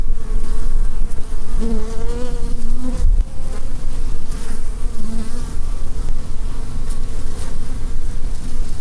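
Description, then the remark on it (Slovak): A dense, steady drone of many honeybees buzzing, a continuous humming swarm with wavering tones rising and falling, no voices present. “Vláda preto uvažuje nad vyhlásením včely za chránený živočíšny druh.”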